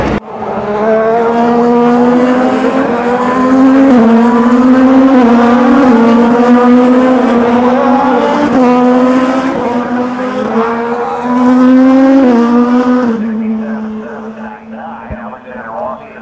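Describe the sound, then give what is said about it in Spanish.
A loud race car engine, with Alex Palou driving, screams continuously, its pitch climbing and dipping repeatedly as it brakes and accelerates through corners 8A and 8B, the corkscrew, where the car takes the inside kerb hard and is unsettled, before easing to a lower drone near the end. “Alex Palou tomó el piano interno muy fuerte y le descolocó el auto, desacomodó el auto para la curva siguiente.”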